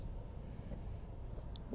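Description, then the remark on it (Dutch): Quiet, steady low rumble of a still car interior, muffled and enclosed, with a few faint soft clicks scattered through it and no one talking; the windshield is covered in snow while the sun shines outside. “Ik zit weer in de auto en ik constateer dat mijn voorruit nogal sneeuwig is.”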